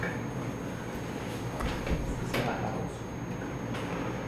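A door swings shut indoors with a few short thuds and clunks in quick succession over a steady room hum.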